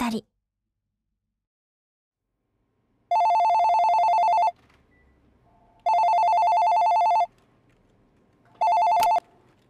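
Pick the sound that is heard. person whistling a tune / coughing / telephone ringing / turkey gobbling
telephone ringing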